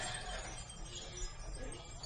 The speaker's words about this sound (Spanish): Estas campanas que escuchas, las son esas ruedas tibetanas que se pasa la mano rodando y se pide un deseo y luego estamos debajo de las campanitas. Que también tiene un deseo escrito y es lo que está. cuelga del badajo y va tocando con el aire.